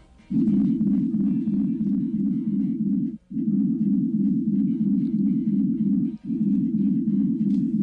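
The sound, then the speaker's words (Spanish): A loud, steady low-pitched hum drones in three long sustained bursts separated by brief gaps, deep and unvarying, with no voices present; an unexplained humming sound coming from the sea near the coast. “Y hace muy pocos años, hace unos tres años, empezó a recoger un sonido extraño, un zumbido que surgía del mar, cerca a nuestras costas.”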